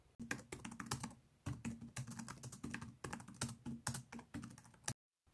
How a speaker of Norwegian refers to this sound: Selv syns jeg det er helt forferdelig å høre folk taste på tastaturet.